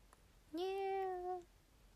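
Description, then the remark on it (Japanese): A single drawn-out kitten meow, plaintive and slightly wavering, lasting about a second and heard clearly on its own against a quiet background. “最後に聞いたのは子猫の悲しそうな鳴き声だった”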